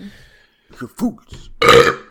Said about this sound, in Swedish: Rap följt av ett oj.